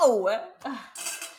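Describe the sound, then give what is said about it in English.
An automatic cat feeder whirs briefly, then dry food rattles and clinks into a metal bowl in a quick burst, with a voice speaking briefly at the start. “sorry guys, that's a cat feeder.”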